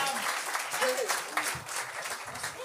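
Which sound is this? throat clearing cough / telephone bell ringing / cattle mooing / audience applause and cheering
audience applause and cheering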